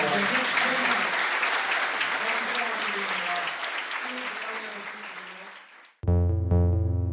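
A crowd claps in a dense, steady burst of applause for about six seconds, easing slightly before it cuts off abruptly and a loud, sustained tonal musical sound takes over.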